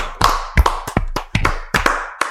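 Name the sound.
applause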